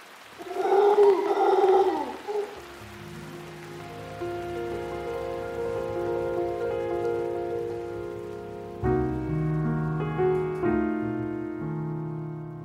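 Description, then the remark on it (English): Loud, wavering howls of mostly black primates with a golden fringe down their sides, recorded in Costa Rica by Andrew Roth for the CD Natural Sounds of Costa Rica, with a throaty, harmonic quality, ring out for about two seconds, then give way to sustained musical chords that shift partway through. “Andrew Roth recorded these noisy primates for the CD Natural Sounds of Costa Rica.”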